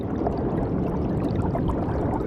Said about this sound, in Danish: og det er jo lyden af floden.